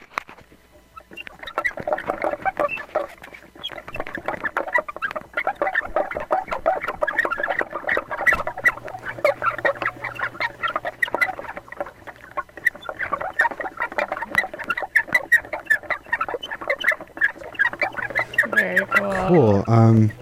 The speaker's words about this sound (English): What is this? This is a tire swing.